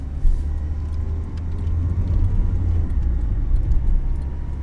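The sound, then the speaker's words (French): The engine of a small green Twingo car hums steadily from inside the cabin, a constant low rumble with faint road noise and occasional light ticks, no voices. “Je monte dans la voiture. Twingo verte.”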